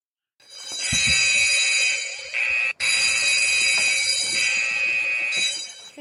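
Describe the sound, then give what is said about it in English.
A shrill electronic alarm from a new timer blares continuously for several seconds, loud, with a steady high-pitched tone and harsh buzzing overtones, briefly cutting out once before resuming. “Okay, so yes, I, I am trying a different timer, and it has that really obnoxious alarm.”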